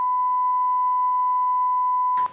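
A steady, loud single-pitched censor bleep holds for about two seconds, then cuts off abruptly with a brief burst of noise at the end.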